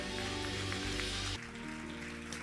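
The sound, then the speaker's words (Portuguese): An audience applauds the Lord loudly in a dense, steady crackle of many hands, with sustained musical tones underneath that thin out partway through while the clapping continues. “Em nome de Jesus Cristo, quem crê, diga amém e aplauda ao Senhor bem forte, com todas as tuas forças. Aquele aplauso.”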